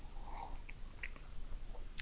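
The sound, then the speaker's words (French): A quiet sip of coffee on a Monday morning: faint wet mouth clicks and a soft slurp, ending in a brief louder swallow-like burst near the end. No one speaks. “Une petite gorgée de café.”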